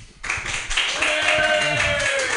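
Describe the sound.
A round of applause on House of Pride Radio, live from San Francisco: dense, steady clapping that starts abruptly and holds at an even loudness, with a voice briefly audible underneath.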